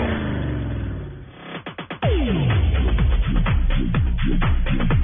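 A loud engine roars and revs, its pitch climbing and dropping in a series of quick, repeated bursts like a racing car blipping the throttle through gear changes.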